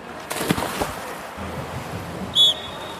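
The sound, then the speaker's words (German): Water splashes and churns in the diving pool of the Olympiabad during water polo team training, in a quick cluster of bursts, followed by a low, steady wash of moving water and a short, high tone near the end. “Jetzt geht's los, ich muss jetzt weiter schwimmen.”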